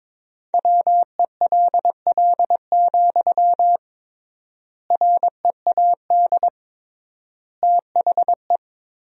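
Morse code sent at 22 words per minute with triple word spacing, tapped out in a single clear, steady tone, quick short and long beeps forming three bursts of characters separated by noticeable pauses, with no voices.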